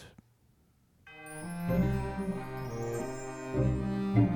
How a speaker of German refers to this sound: Man hört die Kirchenglocken, die Melodie von der ersten Version, ja, ah, Spannung, Krimi.